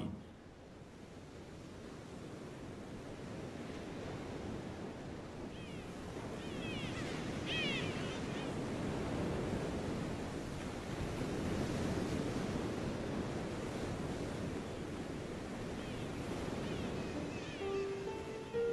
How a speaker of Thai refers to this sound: ทะเลอันสงบ ณหาดทรายรี จังหวัดชุมพร